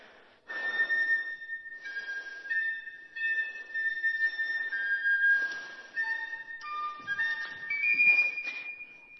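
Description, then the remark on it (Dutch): A shepherd plays a breathy flute, a handful of sustained notes stepping between pitches with short pauses, heard alone with audible air noise around each tone. “maar hij heeft wel een fluit in zijn handen”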